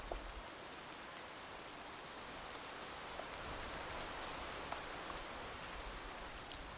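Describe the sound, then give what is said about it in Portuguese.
Steady rain falling, a soft continuous hiss with scattered raindrop taps throughout, evenly paced and fairly quiet, with no voices. “Viraram água e caíam na terra, em forma de pingos de chuva.”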